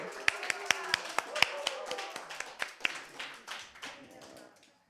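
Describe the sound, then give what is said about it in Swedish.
A few people clap briefly at the end of a Radio Totalnormal broadcast, applauding the day's technician: sharp individual claps in a loose, uneven rhythm that thins out and fades to quiet after a few seconds. “Stor applåd!”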